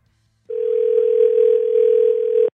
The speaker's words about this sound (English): Let's get her on the phone then. Can you call her